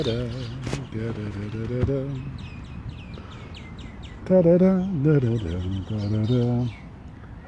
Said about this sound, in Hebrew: אם אתם שומעים, אבל ציפורים פה, הן מצייצות עכשיו יותר חזק מכרגיל, כי עכשיו הן מעריכות את היום היפה הזה, אחרי שחירב להם הגשם את ה... אתמול ושלשום, לא חרב, הן מבסוטיות, אבל הן יותר אוהבות שמש וזה ברור.